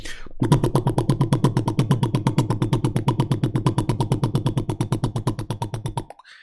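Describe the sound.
A voice imitates a Harley motorcycle engine with a steady, rapid stream of low, pulsing putts lasting several seconds, loud, before abruptly cutting off.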